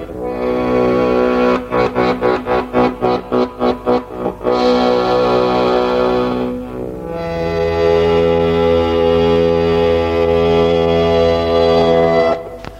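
An early recording of a band's song: loud, heavily distorted band music with no vocals, a run of rapid stuttering chopped chords, then a thick sustained droning wall of guitar-like tone that holds to the end.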